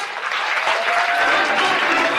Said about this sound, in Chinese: 那我们下面呢，让我们调整好坐姿，用你们最饱满的热情、最热烈的掌声，有请出李夏恒老师。